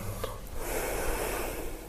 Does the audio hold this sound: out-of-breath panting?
yes